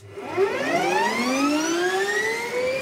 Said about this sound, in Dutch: Eh, ik denk positief. Het is eh, straaljager, eh, motoren. mooie turbine.